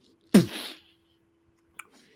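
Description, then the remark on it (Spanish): A voice makes a short, sharp hissing burst that mimics a Coca-Cola bottle fizzing over as it is opened, loud, fading within half a second, followed by a faint click. “me pongo el gui nuevo y voy a abrir una botella de Coca-Cola para tomármela y la Coca-Cola se...”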